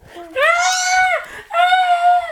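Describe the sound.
Children's voices let out two long, loud, high-pitched screams separated by a brief pause, mimicking the terrified shrieking of children fleeing in panic from a giant's garden in a story.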